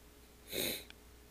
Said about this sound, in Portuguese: Eu tô fungando porque eu acho que eu tô resfriado.